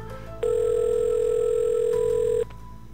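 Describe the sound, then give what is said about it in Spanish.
A telephone rings once with a steady electronic tone lasting about two seconds, loud, over a low background hum. “Imagínate, te suena tu, teléfono. Imagínate. Ah, ¿cómo, sonaría el teléfono?”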